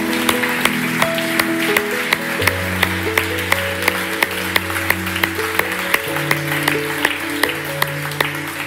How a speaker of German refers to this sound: Hey, und es freut mich so sehr und ich möchte euch bitten, hey, gebt einmal einen dicken Applaus für diesen Mut, diese Entscheidung zu treffen.